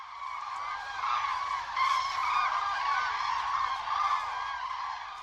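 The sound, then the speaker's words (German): A large flock of cranes calls continuously overhead as they fly in to their sleeping grounds at a former open-cast mine turned nature reserve in Wanninchen, their rolling, trumpeting cries overlapping into a steady clamor that swells and fades, with no talking. “Wenn die dann dazu in Heerscharen in, in ihre Schlafgebiete, Schlafplätze einfliegen, das ist, muss man sehen, dann versteht man, glaube ich, warum Krane.”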